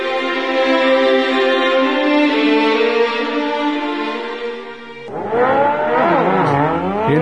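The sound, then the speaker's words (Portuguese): A flying motorcycle's engine hums at a steady pitch, briefly eases off, then revs hard with rising and falling whines, loud, with no voices. “vê-se acompanhado de um homem também numa motocicleta voadora.”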